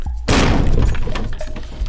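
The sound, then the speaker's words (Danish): An apartment door is kicked in: after a brief silence, one loud, sudden crashing impact erupts, followed by about a second and a half of splintering, rattling debris that gradually settles. “De kan komme ind i opgangen, og så kommer de op til lejligheden, og så sparker de døren ind.”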